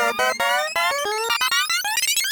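Instrumental electronic music plays on its own, with bright synthesizer tones climbing steadily in pitch over a low sustained drone, punctuated by short percussive hits at a steady, fairly loud level.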